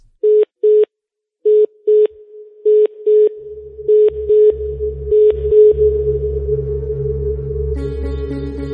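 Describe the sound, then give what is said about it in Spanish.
A phone call connecting: a run of short, evenly spaced electronic beeps at one pitch, then a steady held tone as a low rumble and hiss of the open line swell beneath it. “Me está llamando al teléfono.”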